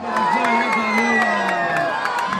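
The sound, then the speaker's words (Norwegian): A large outdoor crowd in central Sarajevo roars and cheers as Edin Dzeko scores 1-0 against Iran, shown on a big screen, a dense continuous wall of shouting voices and whoops with sharp claps or bangs punctuating the din. “I Sarajevo sentrum feirer publikum at Edin Dzeko har banka inn 1-0 mot Iran på storskjermen.”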